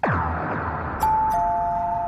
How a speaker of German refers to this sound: Oh, die Türklingel klingelt.